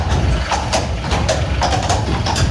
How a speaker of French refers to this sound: Ah, ça sonne bien hein, quand on passe sous la voûte. Ah, oui, oui. On a vraiment le bruit du, fer du cheval sur les pavés. C'est vraiment très très joli et notamment sous ces voûtes où ça résonne un petit peu.